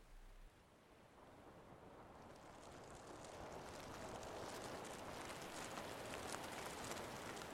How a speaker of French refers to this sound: J'espère que tu as prévu un bon coupe-vent parce que ça souffle. Garde bien ta casquette enfoncée sur la tête si tu ne veux pas qu'elle s'envole.